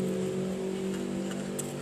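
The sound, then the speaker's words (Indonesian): A motorcycle engine runs, a steady, loud, buzzing drone that holds an even pitch and level throughout, with no voices. “berisik motor, banget motor.”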